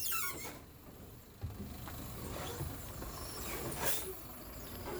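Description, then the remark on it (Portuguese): A city bus rumbles as it slows to a stop after its stop signal lights up, with a steady low engine drone, a few mechanical clunks, and a brief hiss near the end, heard from inside the bus with no talking, as a passenger gets off. “Finalmente o sinal de parada brilha, o ônibus para e eu desço.”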